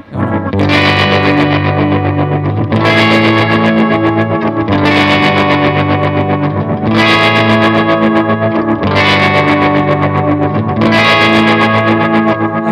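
A distorted electric guitar plays sustained chords with a pulsing tremolo effect, loud, the tone swelling in regular waves with a fresh strum roughly every two seconds and no voices.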